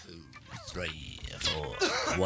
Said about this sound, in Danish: Hvem hoster? Det er …, der tæller ind. ja. … hoster, eller? Nej, det ved jeg ikke.